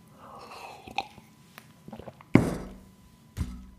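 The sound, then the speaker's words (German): Someone takes a sip from an East German (GDR) mug: a few small clicks, then a short, wet gulp and a muffled thunk as the mug is handled. No one speaks. “So, äh, ich trinke nochmal einen Schluck aus meiner DDR-Tasse von meiner anderen Oma, die übrigens noch lebt.”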